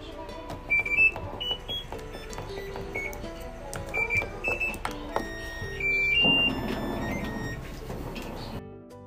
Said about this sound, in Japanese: でこの音皆さん聞いたことある方も多いと思いますけど、えー、日立の、えー、洗濯機の音なんですねあの設定する時のでなんかこのリズムとか音程とかってすごい気になってて